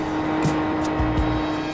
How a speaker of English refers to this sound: This is no special effect. This is 180 miles an hour. Some vital statistics for the true car fanatic. The engine has 12 cylinders, each of them with four valves. It develops almost 500 horsepower.